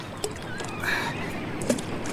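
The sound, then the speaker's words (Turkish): Water sloshes and drips as a fishing net is hauled up into a small boat, with a couple of soft wooden knocks against the hull. “Çekelim bakalım ha tekneye kısmetimize ne çıkacak.”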